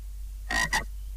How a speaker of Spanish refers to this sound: Sapo. Hola, sapo.